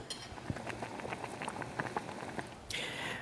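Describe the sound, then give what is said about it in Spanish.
Steady bubbling and popping of water boiling a few spaghetti in a pot while dinner is being cooked, with irregular soft pops throughout and a brief rise in hissing toward the end; no one speaks. “Estáis escuchando cómo estoy cocinando un poquito de, Bueno, unos pocos espaguetis estoy hirviendo y suenan así.”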